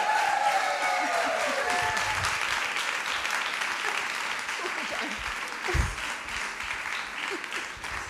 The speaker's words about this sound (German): Der Applaus gibt dir recht